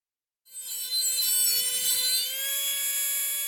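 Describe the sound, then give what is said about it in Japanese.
A dentist's drill starts up during dental treatment after a brief silence and holds a steady, piercing high-pitched whir, loud, with a faint grinding edge beneath it. “先生は私がバキュームを入れやすいようドリルを口から出してどうぞと促してくれました”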